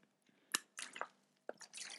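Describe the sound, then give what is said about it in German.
Quiet slurping and wet mouth clicks as someone takes a sip of mineral water, a few short liquid bursts spread over about two seconds, with no talking. “Nimm das Mineralwasser zu dir und nimm einen Schluck Wasser.”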